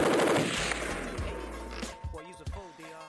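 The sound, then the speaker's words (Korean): A sniper gunshot sound effect: one loud, heavy blast whose rumbling tail rings out for about two seconds before fading, after which a person starts talking. “아직도 저격하는 습관을 그 뭐, 아직 못 버렸구나.”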